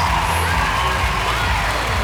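crowd cheering and applauding

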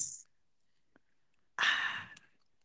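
beer bottle being opened

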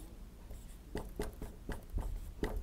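writing on a board

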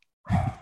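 dog growling

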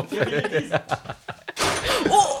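window being slammed shut

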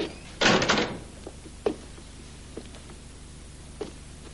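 door closing

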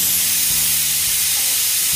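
pressure cooker whistle

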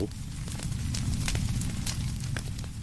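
fire burning

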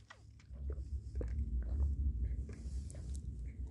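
sipping and swallowing water

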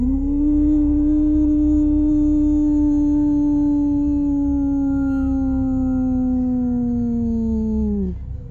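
dog howling

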